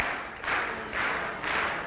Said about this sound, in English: Now let's try it clapping.